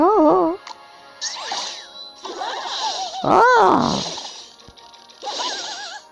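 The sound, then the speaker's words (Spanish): A video game card character, a Valkyrie, gives a short, sharp cry, then breaks into brief bursts of warbling sung notes over bright, shimmering chime-like sparkles, loud. “Es un, como una, un gritito y luego canta.”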